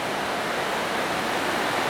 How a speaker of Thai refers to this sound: ต้องเสียงส่งเสียงแข่งกับเสียงฝน